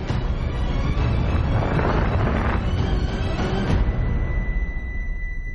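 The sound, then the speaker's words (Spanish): A dense, continuous roar of many overlapping explosions over a dome covering a castle booms and rumbles for several seconds, loud, then cuts off abruptly, leaving a faint high ringing tone. No one speaks. “Sobre la cúpula que cubre el castillo se producen multitud de explosiones.”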